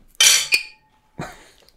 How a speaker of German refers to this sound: Eigentlich müssten wir erstmal anstoßen hier mit alkoholfreiem Bier. Mhm. Wir machen es jetzt mal so, ne?